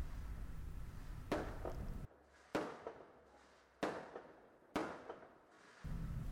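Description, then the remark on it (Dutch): Firecrackers go off at a festival in Valencia, Spain, where papier-mâché figures filled with firecrackers are burned, in a loose series of four or five sharp, loud bangs, each followed by a brief echoing decay over a low, steady background rumble. “In Valencia, in Spanje, viert men het Vallesfeest waarbij poppetjes, ninjots genoemd, van papier-maché ook worden gevuld met knalvuurwerk en worden verbrand.”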